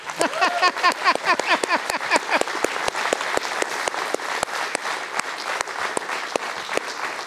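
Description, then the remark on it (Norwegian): A live audience breaks into applause for a woman, dense clapping at first with some cheering voices, then thinning to sparser, irregular claps as it continues for several seconds. “La oss gi, uh, eh, henne eh, en liten uh, applaus, dere.”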